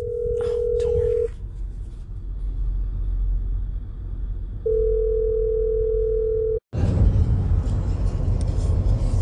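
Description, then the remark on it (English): A steady, single-pitch telephone dial tone sounds twice in long stretches over a low background rumble after a call is cut off, then the line clicks off abruptly into a burst of loud, rushing noise. “the phone rang and I got cut off.”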